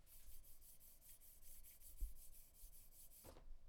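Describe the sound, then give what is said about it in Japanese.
A hand rubs back and forth along a smooth, hand-polished wooden stick in quick, steady strokes, a soft, hissy swishing repeated over a dozen times, with one dull knock as the stick bumps something partway through before it stops. “この、このすべすべ感ですよ。”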